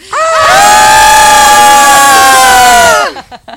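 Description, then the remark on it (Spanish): A group of people scream loudly together on a count of three, one sustained, high-pitched shout lasting about three seconds, intense, then it cuts off abruptly into brief quiet. “Y cuando decimos tres vamos a gritar bien fuerte, nosotras no tanto, por favor.”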